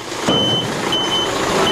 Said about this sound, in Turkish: Kamyonların damper sisteminde güvenlik yetersiz. Damper kendiliğinden açılırsa alarm çalıyor. Ancak bu ses sürücü kabininden bile zor duyuluyor.